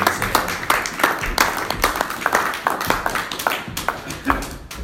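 A round of applause from a small group of meeting attendees, many hands clapping in dense, uneven bursts at moderate volume for several seconds without anyone speaking.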